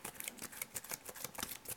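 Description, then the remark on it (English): Trading cards being shuffled before a game round, a quick run of soft, crisp papery flicks and snaps repeating steadily for about two seconds, fairly quiet, with no talking. “well, I don't know where I'm shuffling them without telling you them.”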